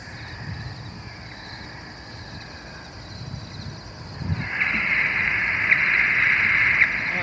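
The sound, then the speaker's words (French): At night, a bat detector picks up a bat known as 2.3 emerging from its roost: after a few seconds of quiet outdoor noise, a steady high electronic tone begins, with occasional faint beeps from the bat over it. No one speaks. “La petite 2.3 qui sort gentiment de son gîte. c'est le petit bip bip qu'on entend, ouais.”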